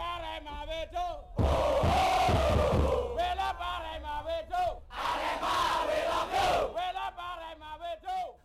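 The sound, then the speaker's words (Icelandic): A large crowd of Arema FC football supporters roars and shouts together in loud, surging waves as spectators rush onto the pitch at Kanjuruhan Stadium in Malang, East Java, Indonesia, and police fire tear gas into the crowd, with many voices yelling over a constant wash of noise and low rumbling thumps. “Áhorvendur hafðu ruðst inn á völlin og lögregla svarað með því að varpa tárakassi á mannfjöldan, nokkuð sem yðurlega endar illa í viðlíka aðstæðum og gerði það sannarlega þarna.”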